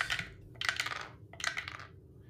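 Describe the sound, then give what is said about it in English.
Several dice, rolled by a player to smite an enemy for damage, clatter and rattle across a hard table in three quick bursts of clicking, fairly loud, with no one talking. “Uh, smite him if I can find my smiting dice.”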